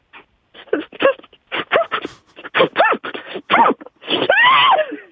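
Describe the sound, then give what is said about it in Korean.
A voice performs an exaggerated imitation of a sneeze caused by a fly getting in the nose: a run of short, rising, whiny gasps, a sharp breathy burst, then a long wavering moan. It is loud, with a bit of laughter. “파리가 코에 뭐 들어가 재채기 하는 소리입니다.”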